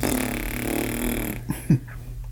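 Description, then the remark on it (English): A voice blows a raspberry, a buzzing mouth-made fart sound about a second and a half long, followed by two short bursts near the end, moderately loud with no words. “just a big fart at the end.”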